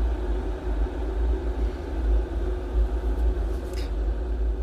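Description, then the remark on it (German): Water boiling for tea, a continuous low rumbling roar with a faint hiss on top, steady in loudness for the whole stretch, with no voices. “Aber das, was du hörst, ist natürlich nicht der Tee, sondern das kochende Wasser.”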